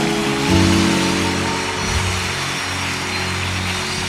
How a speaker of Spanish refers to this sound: Vamos, denle un aplauso fuerte a Dios acá.